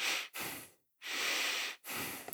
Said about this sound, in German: Also mhm. atme ich langsamer durch die Nase.